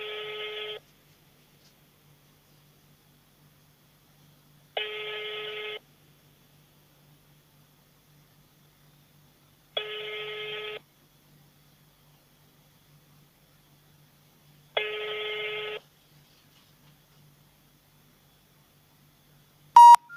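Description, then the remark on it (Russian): A telephone ringback tone for an unanswered call repeats four times, each burst about a second long with roughly four seconds of silence between, clear and steady, with no pickup and a brief click at the end. “Номер не отвечает.”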